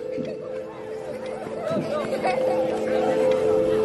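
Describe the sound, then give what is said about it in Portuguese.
A crowd of cheerful voices chatters together in a steady, lively babble, with many overlapping talkers mixed into a constant murmur that swells slightly toward the end. “Vocês, aos poucos, começam a ouvir vozes das pessoas é, felizes, assim.”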